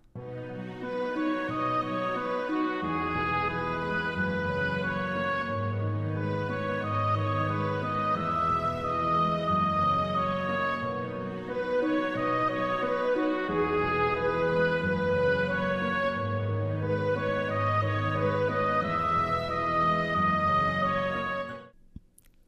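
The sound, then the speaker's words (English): A gentle orchestral lullaby plays steadily, harp arpeggios repeating in a rocking pattern beneath sustained violins and cellos, full, with no voices, ending in a soft fade. “The harp is playing the exact same arpeggios and the violins and cellos are, you know, doing what they're doing through the entire piece.”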